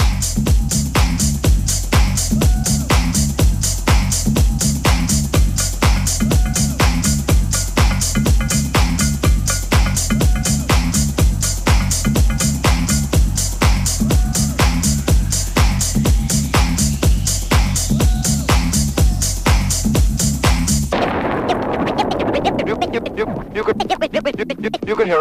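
A loud, driving brass band remix with a steady pounding beat and dense horn layers, which breaks near the end into a looser, swirling passage.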